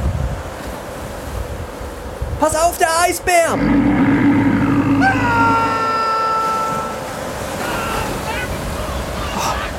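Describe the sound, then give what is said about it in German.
Steady rushing surf and wind fill the background throughout, with a voice speaking excitedly over it and a brief burst of higher, warbling sounds near the start. “Jetzt, er driftet auf einer Eisscholle auf, raus aufs offene Meer.”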